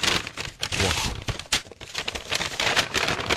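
An overstuffed paper envelope holding a letter being torn open bit by bit: a steady, dense crackling rip with short bursts and brief pauses, fairly loud and with no voices over it.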